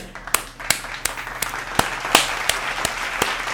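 Applause with a steady, evenly spaced beat of sharp claps, about ten in a row, standing out above a dense crackle of scattered clapping. No voices are heard.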